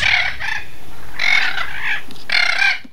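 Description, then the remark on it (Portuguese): A Spix's macaw, flying free again in the caatinga, gives three loud, raspy screeching calls in quick succession, each lasting about half a second, clear with no voices. “Essa é a ararinha azul voando novamente na caatinga depois de ficar mais de 20 anos extinta na natureza.”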